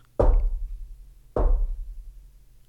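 Two slow, heavy knocks on a door, spaced just over a second apart, each a deep thud with a short ringing decay, fairly loud with no voices.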